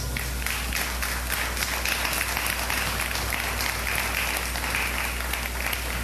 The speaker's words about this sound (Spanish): ¿Cuántos pueden darle un aplauso a Dios?